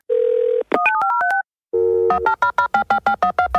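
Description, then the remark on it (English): A steady telephone dial tone, then a quick run of touch-tone dialing beeps, then a busy signal pulsing rapidly in a regular rhythm, loud with no voices. “Don't hang up that phone.”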